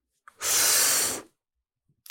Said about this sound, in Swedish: Och sen slutar vi på utandning.